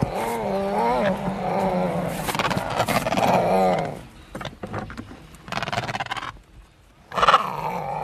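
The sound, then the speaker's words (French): Adélie penguins give loud, harsh growling calls with a wavering, cat-like tone, a long chorus first, then shorter broken bursts and one final sharp call. “C'est marrant parce qu'on les entend, ils grognent presque.”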